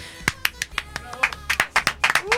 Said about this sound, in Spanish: ¡Aplausos espontáneos!